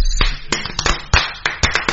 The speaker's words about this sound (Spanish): Un aplauso para la tortilla